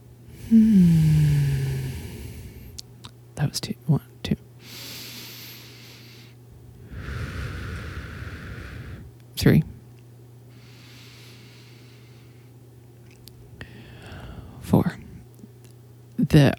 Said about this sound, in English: audio guys are like, God, we are striving not to hear your breath in this microphone. What are you doing?